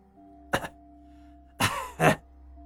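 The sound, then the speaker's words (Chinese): Short, raspy coughs with no talking: one brief cough, a pause, then two louder coughs in quick succession, over a faint steady background hum. “金炫子咳嗽了两声，接着说道。”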